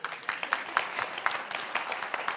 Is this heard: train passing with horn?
no